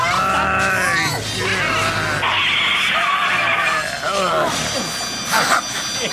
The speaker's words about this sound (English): Okay, I stopped the car.